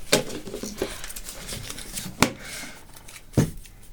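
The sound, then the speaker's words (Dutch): Rustling of a small paper slip with a random question, picked from a bowl, being unfolded: soft crinkles broken by three or four crisp, sharper crackles spread unevenly across the moment, with no voices. “Dus jullie mogen allebei één papiertje kiezen. Dat zijn echt hele random vragen. Ja, maak maar open.”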